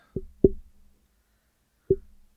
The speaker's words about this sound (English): Her tail is like hitting the microphone.